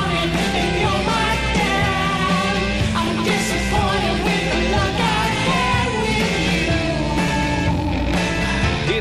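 A Christmas rock song by an American band plays loud and steady from start to finish, with a dense full-band sound of driving guitars and drums and sustained melodic lines on top.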